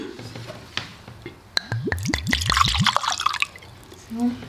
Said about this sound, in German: Dann gießen wir mal ein.